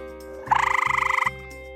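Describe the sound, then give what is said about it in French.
A wood frog croaks in one fast, rattling trill of about eighteen quick pulses lasting under a second, clear, with a low steady hum underneath and no voices. “Réponse C, la grenouille des bois.”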